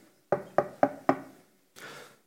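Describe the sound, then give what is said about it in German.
Four sharp knocks on a wooden front door in an even, quick rhythm, clear, followed by a brief soft rustle or shuffle before it falls quiet. “Und danach, ähm, die Geschichte erzählt, der Satan hätte an der Haustür von Martin Luther geklopft.”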